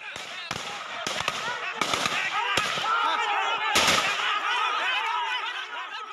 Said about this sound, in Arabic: سبتمبر أيلول 2021 ولاية آسام الهندية قوات الحكومة بتطلق النار باتجاه قرويين مسلمين عم بتظاهروا احتجاجا على إخلائهم من بيوتهم وأراضيهم